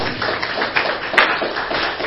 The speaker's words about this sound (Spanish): ¿Cuántos decimos amén esta noche? Den un aplauso al Señor, aleluya.